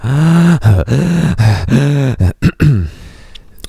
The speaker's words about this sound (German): Beruhig dich. Beruhig dich. Alles gut. Durchatmen. Wir atmen mal gemeinsam.